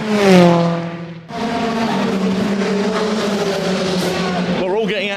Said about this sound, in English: Dad's up into, I'm not sure what he's into at the moment, and Flash just held that drift well then.